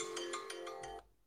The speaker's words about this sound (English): And that was the alarm to tell me I needed to record this.